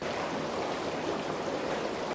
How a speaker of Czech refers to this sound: Tato perličková koupel je vhodná na psychiku, ale i na fyzické uvolnění těla, na uvolnění svalů a napětí svalů. Menší trysky, které jsou nad vany, jemně masírují tělo a způsobují, že lidé mají lepší pro krvení.